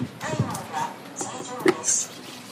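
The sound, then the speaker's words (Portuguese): Alcohol hand sanitizer gel being squirted and rubbed between hands at a crowded hospital entrance during a holiday, heard as short squelchy, hissing bursts and soft friction, with a murmur of voices and busy crowd noise behind. “Vou passar um pouquinho de álcool na mão.”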